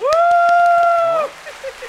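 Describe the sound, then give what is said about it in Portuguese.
An audience applause sound effect: scattered handclaps sounding as a small burst of applause, beneath a loud sustained cheering 'uhh' voice held on one steady pitch for about a second before it breaks off into faint crackles. “Olha, tem todo efeito bem, sonoro. Gostei, gostei, gente, gostei. Que efeito sonoro, a plateia.”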